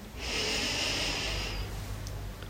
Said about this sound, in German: Es gibt Anspannung und auch die wollen wir loswerden. Auch dazu atmen wir tief ein.